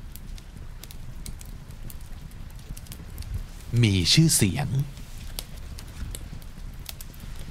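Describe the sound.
A fireplace fire crackles steadily in the background with sharp, irregular pops and snaps, while a voice briefly speaks a short phrase over it midway through.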